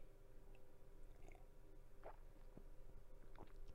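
sipping coffee

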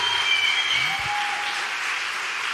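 audience applauding

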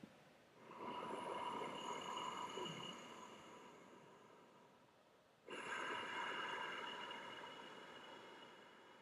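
ocean breath

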